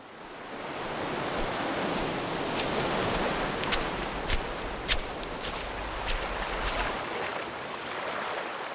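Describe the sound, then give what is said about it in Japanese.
Steady, roaring ocean surf washes continuously onto a beach in Israel, a broad hiss of breaking waves with a few sharp splashing crackles of spray mid-way. No voices; the sea fills the whole stretch at a moderate level. “中東と地中海の間に位置する国イスラエル波寄せる浜辺を眺めているとはじけた水しぶき”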